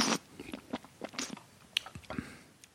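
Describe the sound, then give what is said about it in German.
Chewing of a tasting sample with several crunchy bites in an irregular rhythm, moist mouth noises in between and a quick swallow, fairly loud and with no talking. “Also den anderen, warte ich muss mal runterschlucken.”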